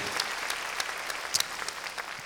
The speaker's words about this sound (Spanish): Porque, hermano, para que no pierda su sabor, démosle, démosle palmas fuertes a nuestro Señor. Gloria a Dios.